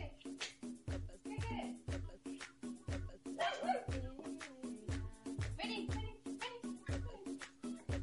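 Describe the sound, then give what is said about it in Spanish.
A female dog barks in a rapid, steady run of sharp barks and high yips, with a few whiny, rising cries mixed in, continuing for the whole stretch. “Listo, la entra la perra, se va todo a cagar.”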